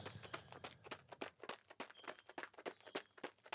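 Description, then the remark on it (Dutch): Steady footsteps of a person walking crunch along at a brisk pace, a dozen or so crisp steps in quick, even rhythm, with no voices. “maar soms luister ik ook wel liever niks terwijl ik aan het lopen ben.”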